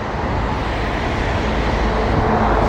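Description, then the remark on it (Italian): A city bus engine rumbles as the bus arrives at a stop amid steady street traffic noise, a continuous low drone that holds level for a few seconds with no voices. “Eh, oh, c'è già qua l'autobus.”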